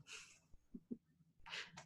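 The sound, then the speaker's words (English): An old dog pants in quick, breathy bursts, with a couple of short, low growling sounds in between. It is quiet, with no talking. “My old dog is panting and growling.”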